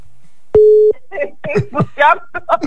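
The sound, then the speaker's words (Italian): A single short, steady telephone ringing tone sounds clearly as a phone call is placed to someone, followed by several bursts of a voice speaking over a quiet line. “Sta squillando?”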